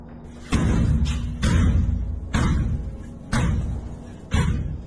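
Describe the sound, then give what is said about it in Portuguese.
Heavy pounding on a door by people trying to get in: five loud booming thuds at a steady, slow rhythm roughly one second apart, each strike low and resonant with a rough rattle, over a constant low hum. “Eles estão batendo na porta.”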